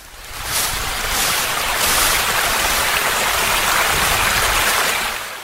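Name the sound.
flowing river water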